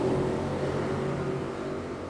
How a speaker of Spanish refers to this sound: así como la moto que va pasando.